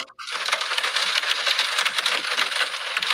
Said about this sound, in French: Et le white noise qui me fait le plus triper en ce moment, c'est euh, averse sur le toit d'une voiture.